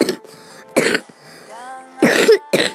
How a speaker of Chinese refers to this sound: 最近有点咳嗽，抱歉啊。